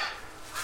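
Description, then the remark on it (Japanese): A crow caws in short, harsh bursts outdoors on a sunny autumn morning, heard from a garden room, fairly faint, with nobody talking. “カラスが鳴いてる”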